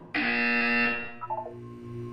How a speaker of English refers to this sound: You will hear a buzzer. When you hear the buzzer, look down at the floor.